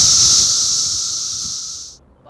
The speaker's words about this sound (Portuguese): E como parte do ritual de acasalamento da espécie, elas cantam e cantam alto. Ao mesmo tempo, trilhões de cigarras podem produzir ruídos superiores a 100 decibéis